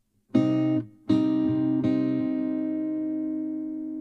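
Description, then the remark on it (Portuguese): Sustained instrument notes plucked one after another, three strong attacks with a ringing harmonic tone that lingers and slowly fades, as strings are checked on a tuner. No voices. “Desculpa, é que tava, tava no afinador.”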